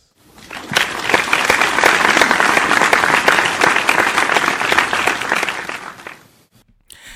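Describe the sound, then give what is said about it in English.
A round of audience applause for a guest at the end of a show swells quickly, holds as dense, steady clapping for several seconds, then fades out. No one speaks over it. “Round of applause for my guest,”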